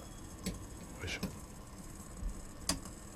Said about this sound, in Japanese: さて今横でですね、えー、フラスコが沸騰してるんですけどその音は聞こえますでしょうか